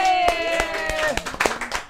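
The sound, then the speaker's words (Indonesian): Steady, sharp claps from an audience land in an even rhythm, about three per second, over a sustained voice humming or talking underneath. “Oke, tepuk tangan dulu dong sekali lagi.”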